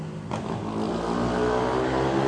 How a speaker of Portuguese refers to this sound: Peraí que filho da puta tá passando aqui. Porra, é convenção de moto, viado. Caralho, o cara tá sem a mão no guidão.